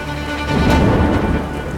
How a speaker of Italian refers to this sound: Il tempo passa e la pioggia comincia a cadere.